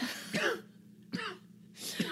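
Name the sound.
coughing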